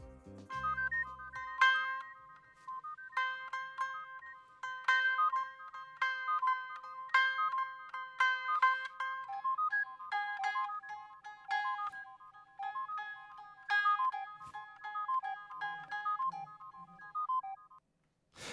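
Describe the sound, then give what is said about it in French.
A soft, high-pitched melody of plucked ukulele and synth notes in a music production plays on its own, gently bouncing with a steady rhythm and a light, airy reverb and echo trailing each note. “j'ai décidé de rajouter des petites notes de ukulélé et de synthé toutes douces dans les aigus.”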